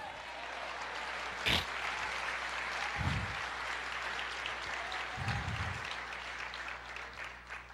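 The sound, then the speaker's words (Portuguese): A church audience applauds the Lord steadily throughout, a dense wash of clapping with a sharp louder clap early on and a few low thumps mixed in; no one speaks. “Aplauda o Senhor, diga eu creio.”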